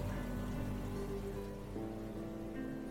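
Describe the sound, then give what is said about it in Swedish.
A dishwasher runs steadily, water spraying inside with a dense, rain-like hiss over a low motor hum, continuous with no voices. “This is a diskmaskin.”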